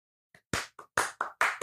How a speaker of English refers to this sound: And now for a special effect sound effect applause. Which one sounded better?